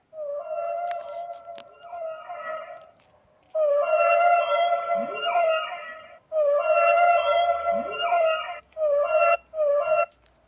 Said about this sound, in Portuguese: Ao se aproximar, Léo de repente viu um filhote de baleia encalhado na areia. Ele escutava a baleia fazer sons.